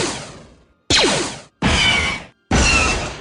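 Four sharp metallic laser-blaster zaps from a hammer striking the cable of a 15-metre antenna out in a field, recorded with a recorder, each a loud twangy burst with descending pitch sweeps that ring out and fade, separated by short silences.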